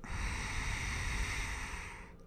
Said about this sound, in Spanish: en la yoga siempre respiras por la nariz. Respiras por la nariz y activas el nervio vago a través de la respiración de Ujjayi, que es como inhalo y exhalo con boca cerrada, pero como si empañara un vidrio.